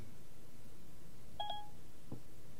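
An iPhone gives a brief, clear electronic beep, a quick double chirp running into a slightly longer tone, followed by a soft tap, while a one-minute countdown timer is being set, over a low steady background hum with no talking.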